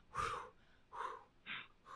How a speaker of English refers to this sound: Breathing. Oh my God. Breathing. Letting go. Letting go.